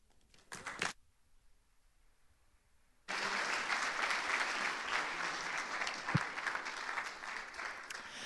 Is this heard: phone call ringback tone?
no